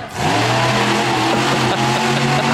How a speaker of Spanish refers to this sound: Y luego asaltan la combi allá adelante. Ya se fue la combi.